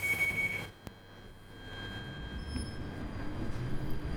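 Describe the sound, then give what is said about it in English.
A London Underground Northern Line train, terminating at Alexandra Palace, rumbles steadily along the rails, with a brief high wheel squeal at the start and a sharp click, the low droning roar continuing fairly loud throughout. “Riding the Northern Line ghost train”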